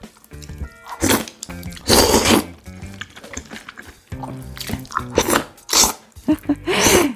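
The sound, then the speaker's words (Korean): Loud slurping of kongguksu, noodles in cold soybean soup, by mukbang YouTuber Hamzy: several wet, noisy bursts in an uneven rhythm with brief pauses and chewing sounds between them, no talking. “이 소리는요, 먹방 유튜버 햄지님의 콩국수 먹방 소리였습니다.”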